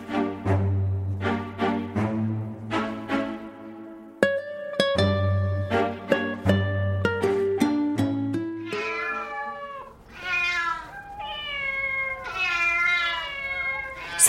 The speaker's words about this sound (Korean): 보금고에서의 생활은 차츰 적응이 되어갔지만 고양이 아저씨의 존재처럼 끝내 적응할 수 없는 것도 있었다. 수시로 들려오는 발정난 고양이들의 울음소리가 그랬고